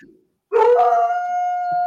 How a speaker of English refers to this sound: The dog agrees.